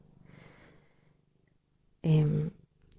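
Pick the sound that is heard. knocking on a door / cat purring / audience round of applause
cat purring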